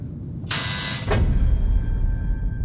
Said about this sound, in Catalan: Ja sóc una altra vegada davant la seva porta. Aixeco la mà i premo el timbre.